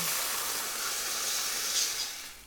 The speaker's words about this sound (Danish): Det er, er også, når man laver kajeretter, det er et meget vigtigt øjeblik, når du steger krydderierne og lige sørger for, at du får det fulde udbytte, men som sagt, uden det tager farve den brændte smag.